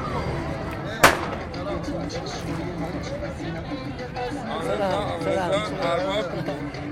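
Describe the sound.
A single sharp firecracker bang cracks out near the start, loud, over a steady hubbub of crowd chatter and voices that continues throughout, at a traditional festival in a neighbourhood.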